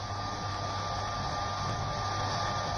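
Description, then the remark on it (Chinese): A hair dryer disguised as a shaver runs steadily the whole time, a constant loud whooshing roar with a faint high whine and low motor hum, no change in level and no voices. “至于这个表面上看是个刮胡刀，其实呢，它是个吹风机。”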